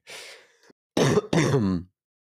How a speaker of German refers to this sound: Voice Crack während dem Husten? Ja. Okay. Das ist der Hust Crack.